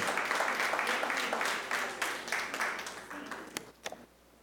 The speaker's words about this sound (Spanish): Amén. Démosle un aplauso al Señor bien fuerte.